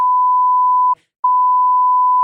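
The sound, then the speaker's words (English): A loud, pure censor bleep tone bleeping out brand names sounds steadily, cut once by a brief silence into two long bleeps, with no voices present. “Bleep them out”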